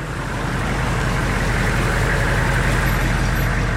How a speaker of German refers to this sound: Zurück nach Bremen. In der Überseestadt rangiert ein LKW langsam vor einer riesigen Halle. Früher produzierte hier ein US-Konzern Cornflakes, jetzt lagert ein Logistikunternehmen seine Waren.